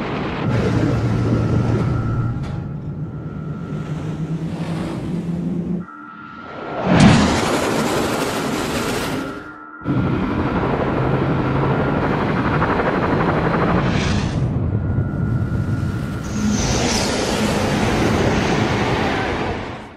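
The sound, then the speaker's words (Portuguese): A maglev train, levitated by electromagnetic repulsion without touching the ground, rushes past with a loud, steady roaring hum, broken by a brief dip and a sharp whooshing surge midway before the dense rumble resumes. No one speaks. “Os trens tipo maglev que não tocam o solo,”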